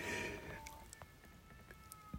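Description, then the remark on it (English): Cats outside yowl loudly while mating, one long wavering cry sliding downward and then thinner drawn-out wails trailing off, with faint clicks and knocks in the background. “These cats is getting it in. And they are so loud.”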